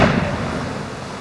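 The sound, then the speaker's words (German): A heavy ship's cannon blast booms, then its rumbling roar slowly fades, with no voices present. “unser Kanonenfeuer dem Feind abbringt”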